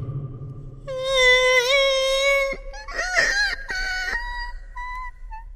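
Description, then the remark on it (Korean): A woman's voice lets out wordless, animal-like wailing moans, wavering and quavering in pitch, fairly loud, rising into a strained cry before trailing off into lower, sustained moaning. “옹알이를 하는 갓난아이도 저것보단 의미를 품고 있겠다 싶을 정도로 짐승의 울음처럼 들리는 뜬모를 소리였다.”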